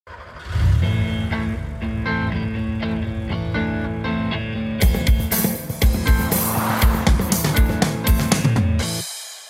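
A short, loud intro jingle built on a steady engine-like drone, turning busier and punchier halfway through with rhythmic hits and revving car sounds, then cutting off sharply. No one speaks.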